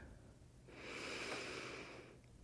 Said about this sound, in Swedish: Ta ett djupare andetag in.